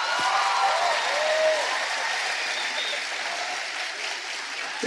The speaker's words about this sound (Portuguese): por favor, dá uma salva de palmas para eles.